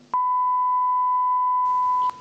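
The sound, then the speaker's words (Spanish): A single steady, loud censor bleep tone holds for about two seconds at one pitch, starting and ending abruptly with faint background noise around it. “Ah, de Pitido.”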